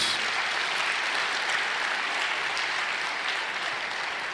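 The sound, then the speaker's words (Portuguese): An audience applauds for Jesus Christ, a dense, even wash of many hands clapping at once that holds at a constant loud level for a few seconds without any voices. “Um aplauso para nosso Senhor Jesus.”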